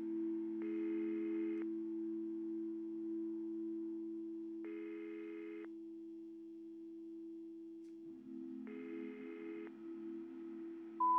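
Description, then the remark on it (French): A telephone ringback tone, heard after a woman dials a contact's number on her phone, repeats three times, each burst about a second long with roughly three-second gaps, over a steady low electronic hum. The ringing is clear, with no one speaking. “Soudain, elle prend son téléphone et cherche un contact dans son répertoire. Elle hésite longuement, puis compose le numéro.”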